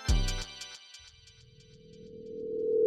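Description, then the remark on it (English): A phone ringtone opens with a quick burst of bright, pulsing electronic notes that fade within a second, followed by a low, steady synthetic tone that swells louder toward the end. No one speaks. “man, you there? Pick up the phone.”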